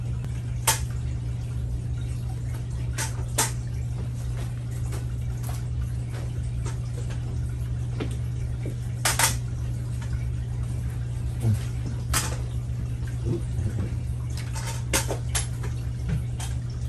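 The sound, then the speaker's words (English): Holy water sprinkled by a bishop during a service at Dallas Universal Life Church in Dallas, Texas, in scattered bursts, sharp little droplet taps and patters landing at irregular intervals over a steady low electrical hum with no one speaking. “As I sprinkle the water, just sprinkle the holy water, say that in your minds with your name.”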